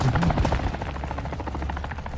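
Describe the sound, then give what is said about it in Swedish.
A helicopter in a video game, its rotor pounding in a fast, steady chop that stays loud for the whole stretch, with no one speaking. “Kom så jävla helikopter.”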